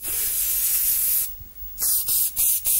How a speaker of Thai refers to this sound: What's that sound? Do you know? Yeah, what's that noise? Someone's doing something. Can you tell from the sound? Yeah, that's the sound of spraying aerosol